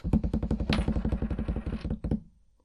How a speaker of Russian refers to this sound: Хорошо, давай тогда бросать монетку, барабанная дробь.